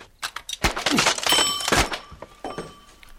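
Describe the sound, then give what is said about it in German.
A pistol strikes a ringing alarm clock as it falls from a table: a quick flurry of loud knocks and clatters, followed by a brief metallic ringing that lingers under a few final thuds. “Da ist doch der Wecker, der schreiende Wecker, der vom Tisch fällt, oder? Der nimmt seine Pistole und haut dagegen.”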